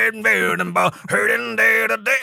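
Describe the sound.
A voice imitates a repetitive metal song, droning a gritty, steady-pitched riff in loud bursts with brief breaks between them, no actual words sung.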